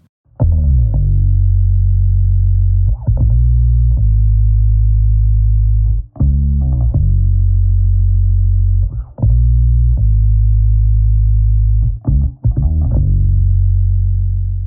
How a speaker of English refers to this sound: in the end, I used Logic's sub bass plugin on the guitar to fill out the bottom end